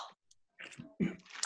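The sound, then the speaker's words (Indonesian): Crunchy chewing of Sukro coated peanuts: a few irregular crisp bursts after a short quiet gap, growing louder toward the end, with no talking. “Aku menemukan kacang lebaran.”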